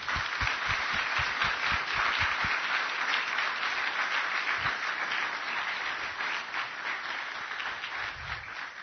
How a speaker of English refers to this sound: Seniors, if you could wait right there just for a second. Um, can we give these guys a hand just to congratulate them?